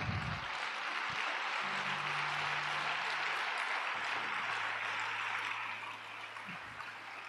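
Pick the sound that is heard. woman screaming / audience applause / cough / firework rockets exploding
audience applause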